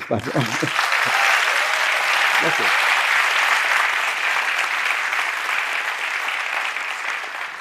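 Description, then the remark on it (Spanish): Steady audience applause after a recited décima poem fills the whole stretch, a dense, even patter of many hands clapping at a loud level, with a couple of brief voiced sounds near the start. “Yo también le aplaudiría a Vicente Espinel porque 426 años y sigue igualita en todos lados.”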